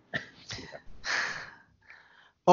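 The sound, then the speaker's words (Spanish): Breathy bursts of air behind a speaker: a couple of short sniffs, then a longer rushing exhale, followed by faint breath noise and a sudden sharper burst at the end. “¿Viste cómo sale la respiración atrás para decirlo sí, con, sí, sí, lo vi, lo vi.”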